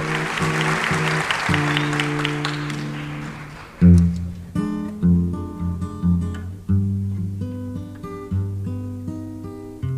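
A theatre audience at the Teatro João Caetano applauds with dense, steady clapping over sustained instrumental chords for the first four seconds. The clapping then fades and the music carries on alone with distinct plucked notes.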